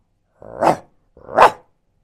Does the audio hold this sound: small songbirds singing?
no